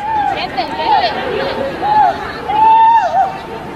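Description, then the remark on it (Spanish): A female referee cries out in pain after being hit hard by the ball during a Real Madrid versus Atlético de Madrid women's football match, several sharp, wavering wails in quick succession, over a steady background murmur of a crowd. “Escuchen los gritos de dolor.”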